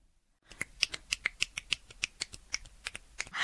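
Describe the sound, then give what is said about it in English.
Rapid one-handed clapping: a quick, fairly steady run of about eighteen sharp, crisp slaps with a bright snapping edge, lasting around three seconds with no one talking. “Look, you guys might hear this on the radio and think I'm clapping with two, but it's one.”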